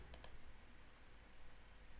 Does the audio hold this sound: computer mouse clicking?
yes